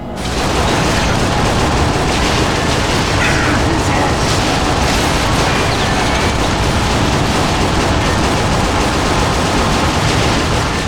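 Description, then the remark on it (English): A dense, loud wall of video game combat noise: continuous turret fire shooting down approaching missiles and rumbling explosions crowd together with no pauses for the whole stretch. “Alright, alright, so you can shoot the missiles as they approach your little turret if you don't want to get out of the turret.”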